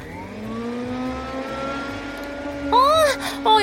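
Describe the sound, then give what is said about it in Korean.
A vacuum cleaner is run in a shop with its door wide open at closing time, with a steady, droning motor whine that slowly climbs in pitch, joined near the end by brief, higher warbling sounds. “그래도 빨리 일어나라고 눈치는 줘야 될 것 같아서 가게 문을 활짝 열어놓고 청소기를 돌리기 시작했습니다.”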